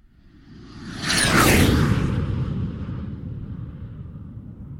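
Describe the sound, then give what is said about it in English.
A loud, sweeping whoosh transition effect rushes in over about a second, with a descending swish on top and a rumbling, airy tail that slowly fades out. No one speaks. “That sound means that we're either going into or coming out of airplane mode.”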